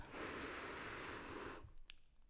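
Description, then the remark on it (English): A single slow, deep breath drawn in during a breathing exercise, a steady airy rush lasting about a second and a half, then near silence with a couple of faint clicks. “Let's go all together. In for four.”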